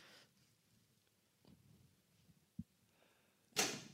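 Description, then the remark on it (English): A sharp pop rings out as a cork bursts from a bottle and nearly hits a fire alarm device at the top, followed by a short airy hiss, after a dull knock and a few quiet handling sounds. “uncorking the bottle nearly hit the oh! fire alarm uh, device at the uh, top.”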